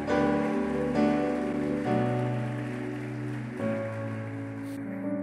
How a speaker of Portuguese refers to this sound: e em teu nome também nós oramos, agradecemos e te aplaudimos. Amém, amém e amém. Mais forte, mais forte.